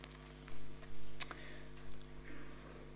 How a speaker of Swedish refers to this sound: Härligt att man hör att det bläddras lite i bänkarna.